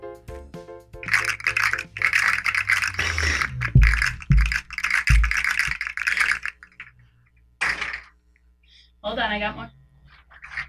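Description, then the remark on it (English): Small plastic fidget toys rattle and click in a dense burst for several seconds, then a few separate clicks and a short rattling flurry follow after a pause. “I'm going to give you some ASMR. so please listen. These are the sounds of fidgets.”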